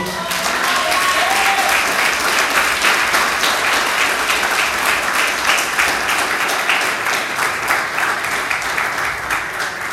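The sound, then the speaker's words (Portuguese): A crowd applauds the Lord steadily for the full stretch, a dense, even wash of many hands clapping, loud and sustained without pause or any voices standing out. “Você pode aplaudir o Senhor.”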